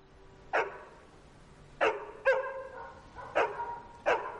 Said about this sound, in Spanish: Alarmados por los ladridos, los dos se asoman al borde de la terraza.